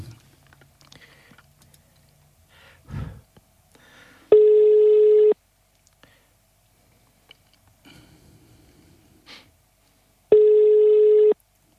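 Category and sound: signal or alarm, telephone call ringing tone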